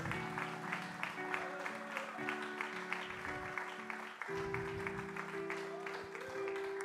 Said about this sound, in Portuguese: Você pode dar um aplauso em Jesus.